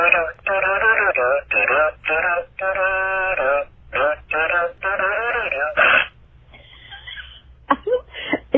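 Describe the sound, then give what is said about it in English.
A squeezed toy pig, passed around in a game, plays a tinny, thin-sounding electronic song in short bursts of melody, followed by a softer crackly stretch with a few squeaky blips near the end. “you squeeze it, it plays a song, and then you pass it around”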